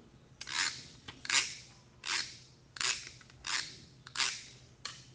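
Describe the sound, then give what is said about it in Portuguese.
Rhythmic strokes of a hand saw cutting through wood in a workshop while a wooden toy truck is being built, about seven rasping back-and-forth pulls at a steady pace, clear with no voices. “Ele também cerrou”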